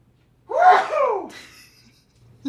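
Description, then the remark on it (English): A single loud sneeze bursts out, with a sharp rising inhale followed by a forceful, breathy release, then quiet. “Hang on, I have to sneeze.”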